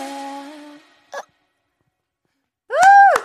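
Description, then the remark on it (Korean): At the end of a live song performance, a sung note trails off, then a quick, sharp hiccup pops out, followed a moment later by a louder, voiced hiccup with a rising-and-falling pitch. “어, 마지막에 약간 딸꾹질까지 네.”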